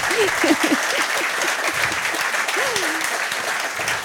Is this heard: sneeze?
no